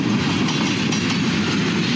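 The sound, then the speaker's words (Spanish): A Ferromex freight train enters the border, rolling past with a steady, heavy low rumble and a dense wash of mechanical noise, holding loud and constant without any voices. “Horas más tarde, entró a la frontera otro tren”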